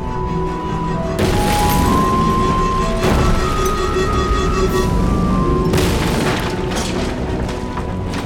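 A dense run of loud, rumbling explosions from the ship Alice blasts a swimming-pool-sized asteroid one blast after another, with sharp bursts around one, three and six seconds over a continuous roaring low-end din and faint tonal hums.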